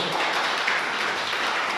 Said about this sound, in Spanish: Amén, amén, amén iglesia. ¿Por qué no le das un fuerte aplauso?